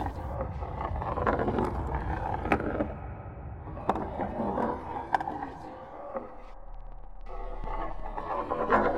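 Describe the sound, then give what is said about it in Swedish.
A small drinking glass, with fingers resting on it, slides across a ouija board with a continuous rough, grinding scrape, steady, dotted with small knocks, then thins out near the end over a low hum. “Så börjar glaset röra sig.”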